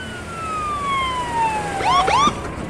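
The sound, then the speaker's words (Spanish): A police siren wails with a long falling tone, then breaks into quick warbling yelps as it grows slightly louder, heard clearly over a steady street rumble with no talking. “Se ven las luces en la esquina, se ve que vienen.”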